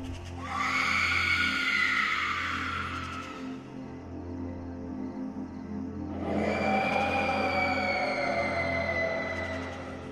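Two long, wavering high-pitched screams of a woman crying out far away, separated by a short pause, in a silent spot almost in the middle of nowhere, heard over a steady low hum with no talking.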